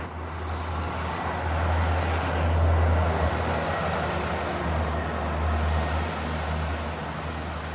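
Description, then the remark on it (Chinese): Steady street traffic at a zebra crossing in Chengdu, China: a continuous low engine rumble and road hiss, swelling twice as vehicles pass, with no voices. “好了，要过斑马线了，我准备去对面吃一点早餐。”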